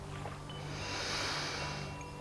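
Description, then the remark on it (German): A single long, deep snorting inhale of fresh, clear air, a breathy rushing noise that swells and fades over about two seconds, with no talking. “Er schnauft tief ein”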